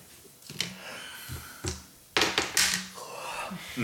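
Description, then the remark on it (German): Sharp plastic clicks and clatters, a few scattered taps and then a quick rattling burst, like dice tumbling across a tabletop with no talking. “Soll ich auch schon würfeln? Ja, würfel du mal.”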